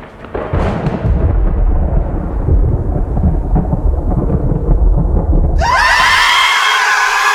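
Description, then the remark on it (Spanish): A massive, rumbling thunderclap from a gigantic lightning strike out of a storm roars loudly with heavy low-end crackle, then gives way abruptly to a high, shimmering electric buzz with rising and falling tones. “Antes de que el Mac forastero pueda responder, la enorme confluencia de transmisión de luz potenciada por miles de palitos que hacen de antenas, provoca una gigantesca descarga eléctrica del tormentón sobre todos los presentes.”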